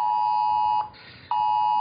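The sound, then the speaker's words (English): A phone emergency flood-warning alert blares a loud, steady, piercing electronic tone that cuts out for about half a second, then resumes just as loud. No voices are heard. “Breaking news! Breaking yeah. news! That's you... enough phone.”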